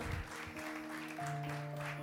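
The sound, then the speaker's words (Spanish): An audience applauds at a preacher's urging during a Spanish-language sermon, a dense, steady patter of many hands clapping for about two seconds, with sustained musical tones holding underneath the clapping. “Vamos, aplaude y disimula.”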